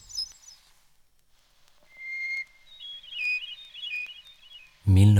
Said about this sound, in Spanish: La mitad de ellos prefieren el canto de los pájaros y en especial el canto del jilguero.